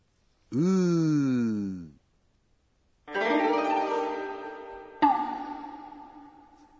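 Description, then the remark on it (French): A voice imitates a police siren as it is expressed in Japanese: a rising-and-falling wail, then after a short pause two more drawn-out siren-like tones, loud, with no other talk. “Et dans le cas d'une sirène de police,”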